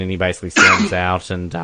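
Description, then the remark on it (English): A single sharp sneeze bursts out in the middle of a man's sentence, briefly louder than his voice, and he carries on talking right after. “bless you”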